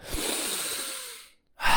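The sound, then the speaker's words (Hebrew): A long, airy breath drawn in by a man running a marathon, a brief pause, then the start of a strong exhale. No one speaks. “אני נושם נשימה עמוקה ואני משחרר, נותן פקודה תמידית להיות בפוקוס, לשחרר את הגב התחתון, לשחרר את הרגליים,”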